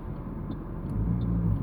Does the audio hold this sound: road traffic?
yes